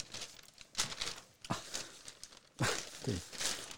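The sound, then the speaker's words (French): Pages of the newspaper Libération rustle and crinkle in several quick bursts, with sharp papery swishes as sheets are shuffled and flipped while searching for page 24, heard on their own without any talking. “J'ai fait une espèce de tour de magie de feuilles de papier, je ne sais même pas comment j'ai fait.”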